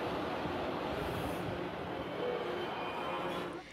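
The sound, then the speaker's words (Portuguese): A loud, steady rumble of a metro train stopping at São Joaquim station in São Paulo, a dense roar of wheels and machinery that holds level before easing off at the very end. “O trem para e Eliseu consegue sair engatinhando dos trilhos.”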